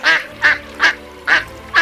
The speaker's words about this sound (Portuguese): Um pato. Aí, a, é, atrás, desse, atrás desse pato, que na verdade vocês percebem que é uma pata, vem mais quatro patinhos.